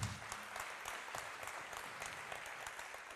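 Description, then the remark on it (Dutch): A crowd applauds steadily, a dense wash of clapping that holds at an even level for the whole stretch without pausing, with no voices rising above it. “Wauw, laten we deze persoon een enorm applaus geven.”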